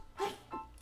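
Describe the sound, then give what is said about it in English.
A quick, muffled sneeze: a short sharp burst of breath followed by a softer second puff, fairly quiet, with no talking. “Ooh, bless you. That washed over you.”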